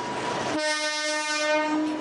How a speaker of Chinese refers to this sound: 它是阿里山林业铁路，也就是家喻户晓的阿里山小火车。